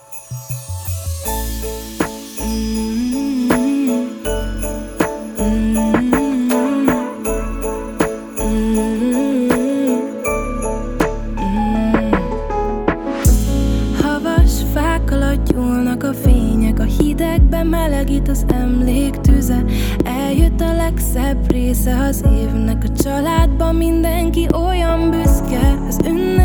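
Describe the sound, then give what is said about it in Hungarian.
A Hungarian Christmas song plays loudly and steadily, opening with a lighter instrumental intro before a fuller band with deep bass enters partway through, carrying a melody sung in Hungarian to the end. “Na jó, akkor maradj vonalban, jó, és akkor ö, meghallgatjuk itt most közösen ö, élőben a, a dalt, és utána folytatjuk a beszélgetést, rendben?”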